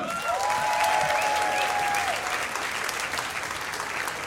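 A stand-up comedy audience gives warm applause to welcome a comedian, a dense steady patter of many hands clapping at an even loudness that fills the whole stretch, with a faint whistle gliding briefly near the start.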